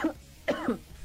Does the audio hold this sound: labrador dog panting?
no